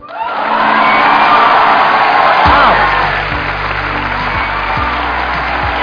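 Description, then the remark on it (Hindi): A crowd breaks into loud, sustained applause with cheering and whoops on top, welcoming guest Chetan Bhagat, a dense wash of clapping that holds steady for several seconds while a low hum runs underneath. “आज के जो हमारे गेस्ट हैं उनको किसी भी तरह के कोई भी इंट्रोडक्शन की जरूरत नहीं है आप सब उनको बहुत अच्छे तरीके से जानते हैं please gave energetic and warm welcome to the one and only Chetan Bhagat”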